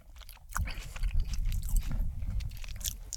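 Wet chewing of a first bite of pepperoni pizza, steady crunchy-soft mastication sounds continuing throughout with no talking, fairly loud.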